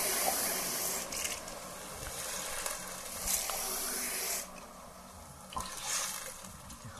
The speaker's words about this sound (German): Und dann fülle ich das Ganze auf mit Wasser.